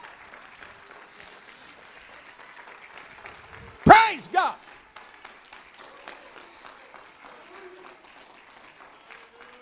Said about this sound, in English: If you believe you're a winner, I want you to give him a good hand clap of praise. Praise God.